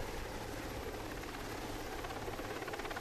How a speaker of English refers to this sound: One helicopter in particular played a pivotal role in the operation the Sikorsky SH-3 Sea King.